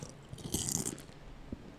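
Crunchy chewing of crisp food, a burst of bright crackling bites followed by quieter munching, with no talking.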